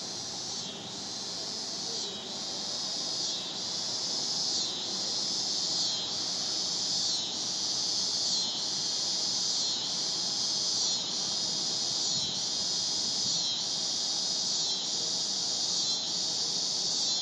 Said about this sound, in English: I want you to hear the uh, the cicadas